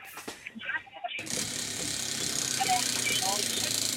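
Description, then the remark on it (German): A prize wheel, spun hard to the right, spins with a rapid, continuous ratcheting clatter that starts abruptly after a moment of quieter sounds, staying loud and steady until the end. “ich drülle für dich am Preisrad.”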